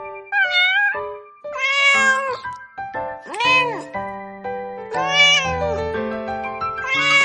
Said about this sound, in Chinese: 小宝宝学猫叫，喵喵喵，喵喵喵。